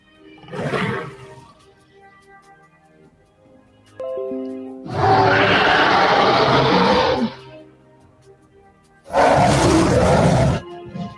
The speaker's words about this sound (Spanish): Ese claro estaba rodeado por un montón de árboles nevados que los veían como soldados blancos llenos de escarcha, y entre los árboles unos ojos anaranjados, varios pares de ellos, les miraban, profiriendo unos rugidos feroces.